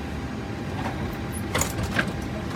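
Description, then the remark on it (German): An aircraft cabin door, its yellow lever switched back to disarm the slides, is opened with a couple of mechanical clunks and a brief sliding rasp, set against a steady low rumble of cabin hum. “Und dann stellen wir diesen gelben Hebel wieder um. Und wenn ich jetzt die Tür öffne,”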